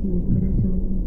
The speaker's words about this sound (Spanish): ¿Se han preguntado sobre sus primeras memorias sonoras? ¿Qué escuchamos en el vientre? el latido del corazón,